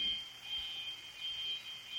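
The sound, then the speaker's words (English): A steady, piercing alarm tone holds one high pitch without a break, fairly faint, like a fire alarm going off during a drill. No one speaks. “That I was thinking that was like a fire drill or something, or Jeez.”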